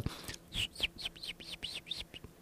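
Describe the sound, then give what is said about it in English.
A person whistles a quick run of bird-like chirps, about eight short arching notes in a steady rhythm, imitating a small songbird with no talking. “That's a very good birdie,”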